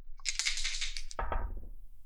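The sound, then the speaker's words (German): Two six-sided dice (2d6) rattle briefly, then tumble and clatter across a hard surface before settling. Fairly loud, with no voices. “Und Würfel. 2d6.”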